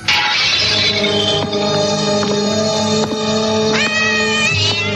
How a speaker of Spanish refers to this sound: un gato.